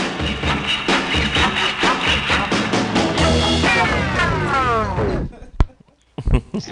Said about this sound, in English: It's a surf record, and that's the ah. sound of the guys waxing their boards.